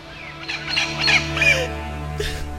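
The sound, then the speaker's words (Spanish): An injured parakeet that was accidentally squashed after being hit by a camera squawks in a few harsh, scratchy bursts, with a short pause before a final squawk, all over a steady low electrical hum. “Y pasó un accidente y le, y le apachurramos a su perico y vean cómo se puso.”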